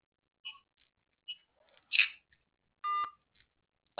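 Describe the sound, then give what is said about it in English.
A phone is hung up with a handful of short electronic beeps at uneven intervals, then one longer, steadier tone near the end, fairly clear with no voices. “I'm hanging up my phone.”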